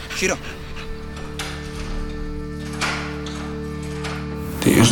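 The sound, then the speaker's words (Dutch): Sharp, short clicks of a dog training clicker, marking the moment a dog sits before it is given food, sound a few times at irregular intervals over a steady low electrical hum, with faint rustling and movement in between. “Het moment dat ze gaat zitten, klik en er komt gelijk voer.”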